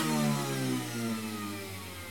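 A juice press runs loudly with a steady, droning motor hum, its low pitch wavering slightly over two seconds with no voices.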